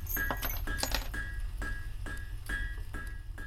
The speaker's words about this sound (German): Äh, eine Schmiede, in der ein Schmied schmiedet. In der Mitte ist großes Feuer zu hören und jemand, der auf Metall klopft.